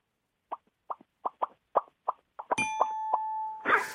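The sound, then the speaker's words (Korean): A caller imitates dripping water as a thank-you, with a quick run of about nine hollow mouth plops in a steady rhythm, clear, and then a sustained bell-like ding rings out. “감사의 표현으로 물방울 소 하나 내고 마치겠습니다.”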